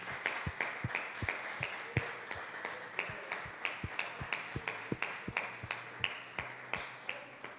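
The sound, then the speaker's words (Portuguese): A church audience claps for Jesus in a steady, rhythmic beat, about three sharp claps per second, sustained over a dense background murmur of crowd noise. “Aplauda Jesus.”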